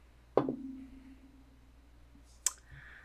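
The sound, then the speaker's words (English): A die clatters onto a hard surface with a sharp knock and a short ringing tail, then a second crisp click about two seconds later, fairly loud. The die is rolled for a wisdom save and lands on a natural one. “dice.”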